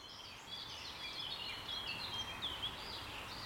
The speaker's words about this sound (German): Äh, zum Beispiel fährt mein Auto vorbei, ein Vogel zwitschert ein bisschen, aber lasst euch davon nicht stören.